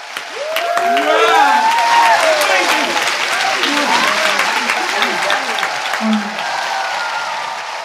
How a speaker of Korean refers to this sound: 화면은 다시 세계적인 영화인들이 일어나 박수치는 시상식장으로 넘어갔다.